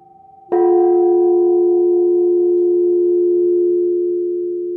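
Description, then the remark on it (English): A single mallet strike on a resonant metal tank, a sharp hit that blooms into a deep, steady ringing tone with faint overtones, sustaining loudly and fading only slightly over several seconds. “when you strike that tank with the mallet and you hear the spectrum of the sound unfold, you hear the sort of inner complexity that every sound has.”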